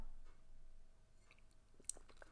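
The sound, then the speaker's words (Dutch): Someone takes a quiet sip of water, with soft wet mouth clicks and a brief swallow against a faint background hum; no one speaks. “Ja, af en toe moet ik dus even een slokje water nemen, dus dat kan je horen”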